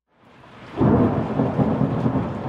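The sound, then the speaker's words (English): Steady, heavy rain at a reunion at Lincoln Center in 2022 swells in over the first second and then keeps up a dense, even hiss, with a deep low rumble underneath. No one speaks. “There was a reunion at the Lincoln Center in 2022. It was raining, but that didn't stop anyone from congregating under the massive disco ball.”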